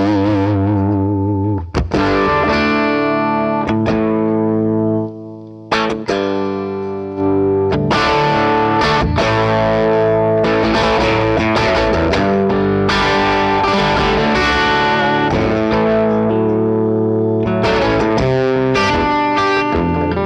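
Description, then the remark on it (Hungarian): An electric guitar plays sustained chords through an amp, the tone gritty and breaking up into distortion, loud, with a brief pause before strumming resumes. “maradjon fenn egy picit, picit nekem kezdett szétesni a hangja.”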